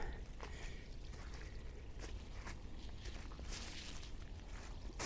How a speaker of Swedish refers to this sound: Och här rinner det jättemycket vatten. Nu är jag på en plats, det ligger ganska nära mitt hus.